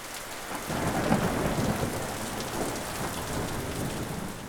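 A thunderstorm with steady, heavy rain hissing across the whole clip and a deep rumble of thunder rolling low underneath, loud, with no voices.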